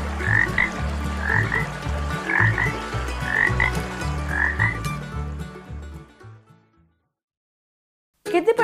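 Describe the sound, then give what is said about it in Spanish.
A dense chorus of toads croaking in overlapping rhythmic pulses in a stream, loud, continuing for about six seconds before fading to silence, then a brief burst of another sound at the end. “Poco a poco, en el arroyo fue apareciendo una interminable hilera de sapos.”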